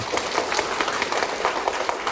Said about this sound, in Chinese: 有没有信心？好，来给自己掌声鼓励。